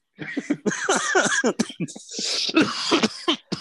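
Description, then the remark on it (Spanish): A loud run of coughing and throat clearing, several rough bursts back to back over a few seconds with short gaps between them and no other sounds around them. “Verga, no, eso es COVID. No mames, ya me dio COVID, güey.”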